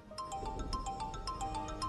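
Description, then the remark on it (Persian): Someone's mobile phone ringtone rings on a train in a fast, repeating electronic pattern of bright, screechy chirping tones that drags on, steady and fairly loud over a low background rumble, with no one talking. “گوشی یکی زمین میخوره دارم دروم ناهنجار و صدای جیغی داره خیلی لفتش میده جرینگ جرینگش داره سرمون میبره”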